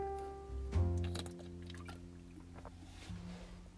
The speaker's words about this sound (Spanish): Mm, un momentito, voy a, a un traguito. De agua, obviamente.